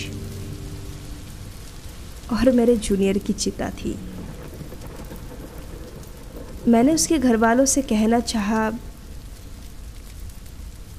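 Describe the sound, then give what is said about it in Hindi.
Steady rain falls throughout as a continuous hiss, with low rumbling beneath, where a crowd stands in front on arrival by car, while a man speaks in two short stretches over it. “car से मैं बाहर निकला सामने भीड़ बारिश”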